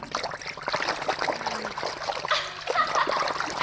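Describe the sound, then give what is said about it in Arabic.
Water splashes and churns as a half-fish girl dives under the water, a busy, bubbling stretch of sloshing that swells in the second half, with no voices over it. “طب غابت ليه تحت المية؟”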